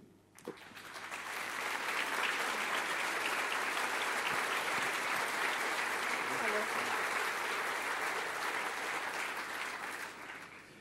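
Sustained audience applause, a dense, steady wash of many hands clapping that swells quickly after a brief start and holds at an even loudness for about ten seconds before easing slightly, as a woman is invited onto the stage at a Christian gathering.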